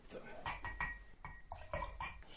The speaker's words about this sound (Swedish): Nej, är det inte någon som vill ha mer absint? Jo, för satan. Fyll på glaset.